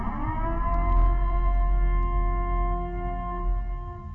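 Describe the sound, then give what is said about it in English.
A loud civil defense siren holds a steady, droning wail throughout, its tone rich and unbroken, with no voices present. “Commencing at the siren, there will be no holds barred, anything and everything will go down.”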